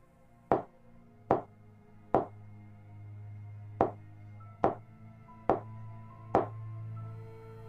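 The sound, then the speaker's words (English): Seven sharp knuckle knocks on a wooden table by a girl, in an uneven, deliberate Morse code pattern used to call for help: three raps, a pause, then four more, clear over a low steady hum. “She knocked on the table with her knuckles, and a shiver immediately ran through my spine as I recognized that exact pattern when I asked her what it meant, she laughed.”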